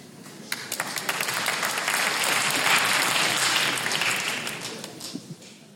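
Sparse, scattered clapping from about 12 people in an audience of an 1,800-seat hall, answering by applause whether they used the pandemic to improve physically; hands pat unevenly for several seconds, swelling slightly in the middle before thinning out at the end.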